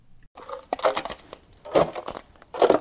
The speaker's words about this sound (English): That is the sound of ice breaking. Different than the sound of crunching.